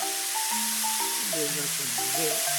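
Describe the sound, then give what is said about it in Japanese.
A steady sizzling hiss of steam from an iron pressed onto a wet cloth laid over a small, rice-grain-sized dent in a wooden floor to raise it, with white steam rising, lasting throughout, with faint tonal, voice-like sounds running underneath. “じゅわーっていう音とともに、はい、あ湯気も出てきてますね白い湯気が立ち上ってます細かい傷ですとこれで浮き上がってきますね”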